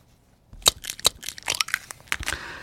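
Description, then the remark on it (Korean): An egg being cracked: a quick run of sharp crackling snaps and brittle crunches, with the shell splitting in several bursts over about two seconds. No voices. “예, 계란 깨는 소리입니다.”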